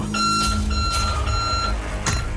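A loud electronic alarm tone from the alarm function of the KGRG mobile app beeps steadily and shrilly, sustained for a couple of seconds over a rumbling, noisy background, with a brief whoosh near the end and no talking.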